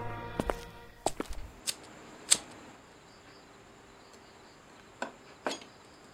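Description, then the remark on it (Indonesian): Sharp footsteps land on a hard surface in an uneven rhythm, a cluster early on, a lone step, then two more after a pause, over a quiet background hiss with a faint insect whine. The footsteps are heard behind people walking. “Kami pun kembali melangkah, tapi lagi-lagi terdengar kembali suara langkah kaki di belakang kami.”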